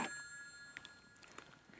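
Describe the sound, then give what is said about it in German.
A telephone bell rings faintly and keeps on ringing without stopping, its bright metallic tone lingering and fading across the moment, with a few soft clicks or taps scattered underneath. “Dieses verdammte Telefon. Ach, oh, machen Sie doch etwas dagegen, Herr Koch. Es hört nicht mehr auf.”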